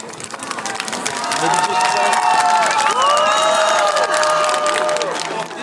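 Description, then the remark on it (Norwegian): A large crowd cheers and applauds loudly and steadily as Zelenskyj and his motorcade arrive, with excited shouts and whistles rising above the dense clapping throughout. “Eh, når Zelenskyj kom jo akkurat for, til eh, full jubel,”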